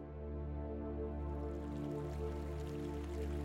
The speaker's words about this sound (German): Am Fluss angekommen, war er so fasziniert von dem fröhlich plätschernden Wasser, dass er den Hirsch laufen ließ und sich ans Ufer setzte, um das Wasser zu beobachten. Das Wasser begann sich zu kräuseln und zu zischen.